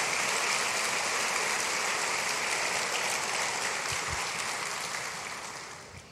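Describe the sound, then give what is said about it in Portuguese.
An audience applauds Jesus steadily, a dense, continuous wash of clapping that stays loud for several seconds before beginning to fade at the end, with no voices over it. “Aplaude Jesus para tomar um gole d'água.”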